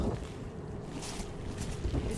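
Strong gusts of wind mixed with hail batter a car and make it sway, at the entrance to a town as snow falls; a loud, dense, continuous roar with deep low rumble and a couple of brief, brighter surges as the gusts hit.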